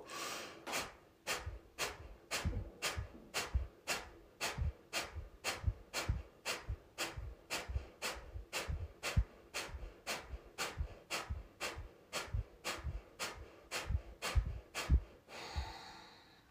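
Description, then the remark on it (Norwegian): Kapalabhati yoga breathing, second round: about thirty sharp, forceful exhalations through the nose, evenly paced at roughly two per second, fairly loud, with no talking. “Så altså, Kapalbhati frontal brain cleansing, så det er en ganske rask måte å rense hjernen på.”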